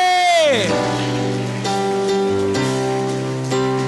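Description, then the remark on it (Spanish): A crowd claps steadily as applause to the King, in a dense, continuous patter, mixed with loud sustained keyboard chords that slide down in pitch and then shift between held notes. “Dale un aplauso al rey, aleluya. Aleluya. Vamos, aplaude.”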